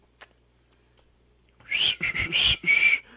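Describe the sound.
After a near-silent opening, a person whistles in a run of short, breathy, shrill bursts, imitating a grandstand crowd in Mexico jeering with whistles at Ferrari driver Kimi Raikkonen after his crash. Loud, ending on a sharper sustained tone.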